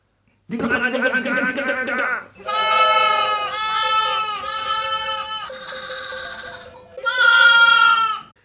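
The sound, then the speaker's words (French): Several sheep bleat loudly while waiting for grain, overlapping in long quavering calls, with a brief pause before another strong bleat at the end. “Mais ça belle pour le grain.”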